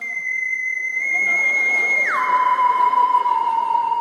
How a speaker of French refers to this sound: Si ton réveil matin ressemble à ça,